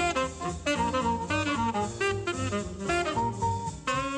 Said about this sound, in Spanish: Después de la Segunda Guerra Mundial. Eh, salió el género del bebop. Entonces, el género del bebop suena así.